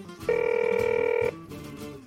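A telephone rings once in a steady, bright trilling burst lasting about a second, fairly loud, then cuts off, leaving a soft murmur of background activity.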